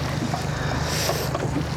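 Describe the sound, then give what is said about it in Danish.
A small rubber dinghy heading out on the water, with a steady low motor hum, splashing and wind buffeting the microphone, continuous throughout. “nu sejler vi så ud i øh, gummibåden her”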